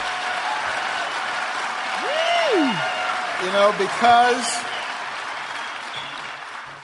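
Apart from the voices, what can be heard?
audience cheering and applauding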